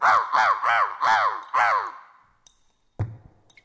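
A crow gives five harsh, rasping caws in quick succession, loud, then falls quiet before a single dull thump.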